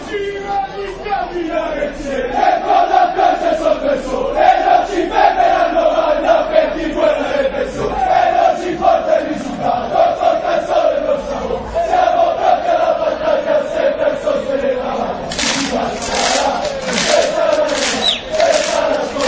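A large crowd of Napoli football supporters chants loudly in unison, repeating melodic phrases. Near the end, sharp rhythmic clapping or drum hits join the singing.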